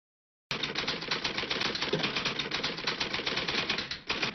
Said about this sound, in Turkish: Evet az önce duyduğunuz daktilo sesleri benim çok sevdiğim filmlerden biri olan Başkanın Tüm Adamları orijinal diliyle de All the President's Men filminden bir alıntı.